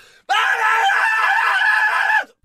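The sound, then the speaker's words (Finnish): A woman's terrible scream, heard as the front door of a home is opened: one long, loud, piercing cry held steadily for about two seconds before cutting off abruptly, alone with no talking over it. “Ja saman tien kun avaa oven, niin hirveä huuto semmoinen.”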